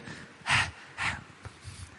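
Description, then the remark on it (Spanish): Heavy breathing right up against a microphone: two loud, rushing breaths about half a second apart, followed by quieter, softer puffs of air, with no talking. “los llevo a todos así, mira cómo está respirando”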